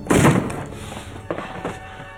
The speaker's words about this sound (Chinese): 然而就在准备进老爷办公室确认情况的时候，发现门被反锁了。谢医生赶紧砸门而入，双双大吃一惊。